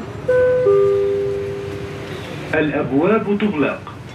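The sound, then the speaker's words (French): Two steady electronic chime tones sound as the doors close, over the rumbling, noisy interior hum of a moving metro train in Dubai. Then the hum cuts out and a voice begins speaking. “Doors closing. Reprenons le métro.”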